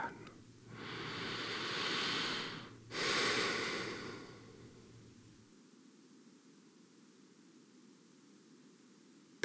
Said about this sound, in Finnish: Tässä kohtaa voitaisiin hengittää vähän pidempään.